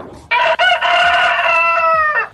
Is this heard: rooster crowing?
yes